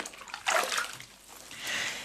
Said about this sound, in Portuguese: É que eu tive agora a sensação de que quando entrei na banheira, a água subiu.